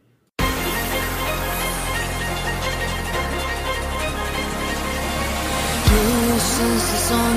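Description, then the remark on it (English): A loud, densely layered instrumental intro of an anime opening theme starts abruptly after a brief silence, driving steadily, then surges into a heavier, fuller section near the end. No voices. “Uh, the OP, which is fantastic, of course, because it was done by”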